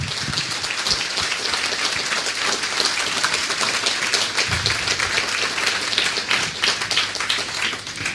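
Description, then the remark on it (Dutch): Sustained applause from a crowd for the organisers of the Stichting Hulpverleners Respect, a dense, steady clatter of many hands clapping at once that holds at an even, fairly loud level throughout without pause. “Graag even jullie een ruime applaus.”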